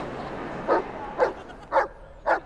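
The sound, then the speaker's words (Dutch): A dog barks four times in a steady, evenly spaced rhythm, each bark short, over a low background hum with no talking. “Nou, maar in dit geval zou je nog wel kunnen zeggen: het lag niet aan mij, het lag aan de hond. Het was de hond, precies.”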